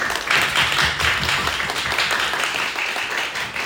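Sustained applause from an audience, a dense crackle of many hands clapping at once, steady and fairly loud throughout with no voices.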